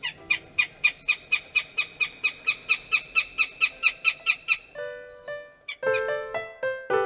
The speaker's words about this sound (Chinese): 最后，给大家听一下凤头苍鹰的叫声，也许你在家附近的公园也曾经听到过哦。